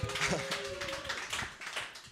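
An audience applauds two participants who took part in a game, many hands clapping in a dense, steady patter that fills the whole two seconds, with a brief tonal cheer or whistle rising out of it near the start.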